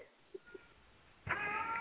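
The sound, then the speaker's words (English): A single drawn-out cat meow starts abruptly after a quiet stretch with a couple of faint soft clicks, fairly loud, with clear harmonic tone and no talking. “Who's that meowing?”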